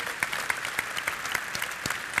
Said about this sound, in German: Und an der Stelle ist ein Applaus für Frank Schäffler übrigens äh